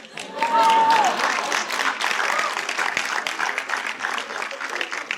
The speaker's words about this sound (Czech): ne, já, já chápu, že tleská chlap